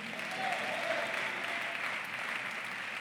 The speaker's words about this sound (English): Clap your hands and shout, Amen.